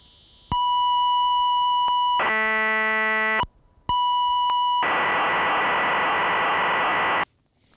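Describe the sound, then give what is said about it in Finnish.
Computer program data for a PC, sent as audio in a weekly radio program in the 1980s: a steady high beep, a buzzy harmonic-rich tone, another beep, then a loud stretch of hissing, screeching data noise. It is loud, with no voices. “Ja nyt lopuksi se viikon surina, joka on tehty PClle.”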